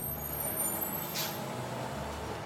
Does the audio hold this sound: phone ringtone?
no